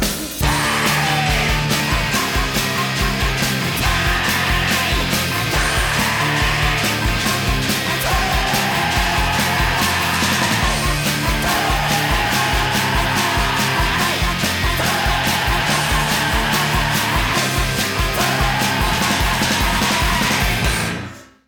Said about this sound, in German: wie …, der Sänger …, schreien kann, löst bei mir bis heute physiologische Reaktionen aus